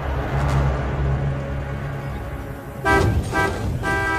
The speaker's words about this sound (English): Prem and Babu are dragging the little Morris clear when, with a great blaring of horns, one of the hill station buses swings past, causing them to jump quickly to one side or be run down.